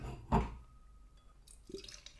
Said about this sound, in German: Ich gebe mal ein. Also so einschütten aus der Dose in so ein Glas ist nicht so cool.